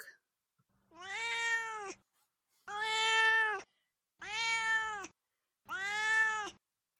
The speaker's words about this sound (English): All right, now it's time for Duarte's Corner, where my cat Duarte will share his opinions about the book.